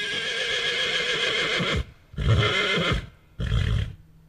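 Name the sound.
horse neighing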